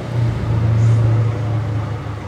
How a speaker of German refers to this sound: So, das war wieder mal ein lautes Auto. Sollen wir mal raten, wer da am Steuer saß?